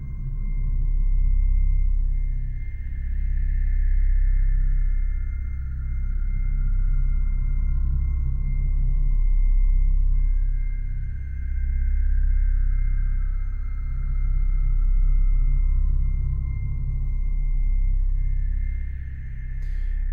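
Ambient film score from the science fiction film Interstellar: deep, sustained low drones under slow, rising and falling high tones that swell roughly every eight seconds, steady and loud throughout, with no voices.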